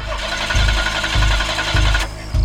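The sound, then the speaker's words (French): A car engine cranks over and over without catching, a loud, steady grinding whir with rhythmic low pulses roughly every half second. No voices are heard. “La jeune femme tente de démarrer.”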